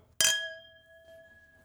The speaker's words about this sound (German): Eingeschenkt und jetzt ja, wird ja, angestoßen. anstoßen.